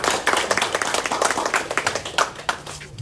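An audience claps steadily for about three seconds, a dense patter of many hands with a few sharper, louder claps standing out, no voices over it, welcoming a speaker to the stage to share her experience.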